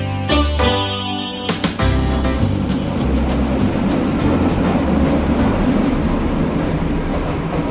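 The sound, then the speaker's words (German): A subway train rumbles steadily along, with a continuous low roar and rhythmic clicking from the tracks, loud, after a few brief tonal hums at the start. “Äh, heute kommt mir die Fahrt mit der U-Bahn irgendwie länger vor als sonst.”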